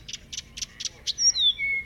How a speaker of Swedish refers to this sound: jag började gå dit och så hörde jag liksom fågelkvitter